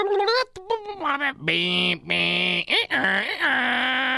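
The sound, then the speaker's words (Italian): A voice imitates an old dial-up modem connecting, with warbling pitch glides, a sustained buzzy screech and rising chirps, loud, for about four seconds. “ve la ricordate il vecchio modem? Ecco, non ne fanno più che fanno tutto quel rumore imbarazzante di una volta”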